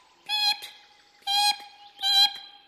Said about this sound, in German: sagten die Meisen, als sie erwachten. Sie sagten es ganz leise. Aber weil es noch grau und dämmerig war, sagten sie einstweilen nichts mehr.